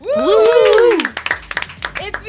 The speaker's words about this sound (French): Un tonnerre d'applaudissements pour Marine Bausson